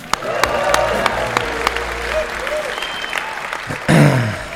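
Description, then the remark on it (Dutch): A crowd breaks into steady, dense applause, sustained, with scattered sharper claps and faint voices mixed in, swelling briefly louder near the end. “Dames en heren, laat je horen voor Bit Academy.”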